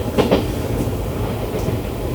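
A steady rumble of a train rolling along the rails toward Alavus, heard from on board, with a dense low-frequency drone and faint rhythmic clatter from the wheels. No one speaks.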